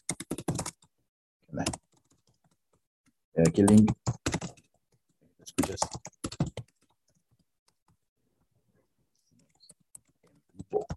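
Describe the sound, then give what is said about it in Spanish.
Bursts of keyboard typing, sharp clicks in short irregular clusters with pauses between, while a person speaks briefly at the start and middle; someone is typing and sending a message. “A ver, estamos en este momento mandando un mensaje”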